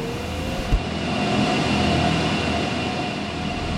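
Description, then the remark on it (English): A loud, steady mechanical roar of cryptocurrency mining machines at a CleanSpark mine behind the Atlanta airport, dense whooshing fan noise with a faint tonal hum running through it, unbroken, with no voices. “The mine was so loud we had to go behind a sound wall”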